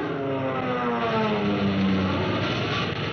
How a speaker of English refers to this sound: You can see two of those kids of the RAF and their planes, your plane, zooming up to fight for those ships, for your life.